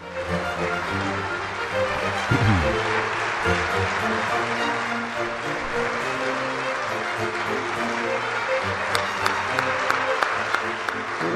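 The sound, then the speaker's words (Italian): A large audience in the Italian Senate applauds in a dense, steady roar of clapping, welcoming Liliana Segre, appointed senator for life in January 2018. The clapping holds at full strength for the whole stretch, with faint low voices murmuring underneath. “Il vostro applauso mi risparmia, ma lo aggiungo ugualmente, il caloroso e rispettoso saluto di benvenuto che io rivolgo alla nostra nuova collega.”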